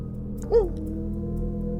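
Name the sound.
dogs barking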